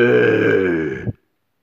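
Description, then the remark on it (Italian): A voice imitates a giant's snore with one drawn-out, low, guttural rasp, loud, lasting about a second before cutting off abruptly into silence. “Quando sentì che il gigante russava, Giacomino passò”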